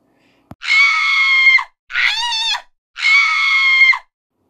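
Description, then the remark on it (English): Three loud, piercing animal screams, each about a second long, the middle one wavering into a squeal, with short gaps between and a brief thump at the start, as the animal is hauled in a net up out of the water of a tank. “Well, I stood there feeling guilty as sin because as soon as she was out of that water, she commenced to screaming and squealing like something you ain't never heard.”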